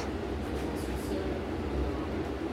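A steady, enveloping underground rumble fills a room in an art centre, deep low-end drone with a hissy wash on top, like a train-filled metro tunnel or station heard from within, constant and fairly loud.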